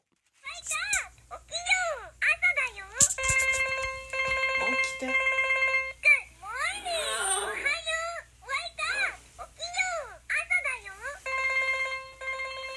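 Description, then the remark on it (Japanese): An electronic alarm clock rings at 6 a.m. in steady repeated bursts of beeping tones for the youngest child, a first-grader who won't get up, while a child's voice calls out repeatedly in high, whiny pleas between and over the alarm, urging to wake up. “えー、目覚まし時計が鳴ってるのになかなか起きない小一の末っ子えひたすら目覚まし時計と起きてよと伝えるだけの音声です。”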